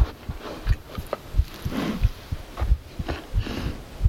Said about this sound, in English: A sense of anticipation gathered at the tips of my nerves as I felt the animal's heartbeat ripple the still air.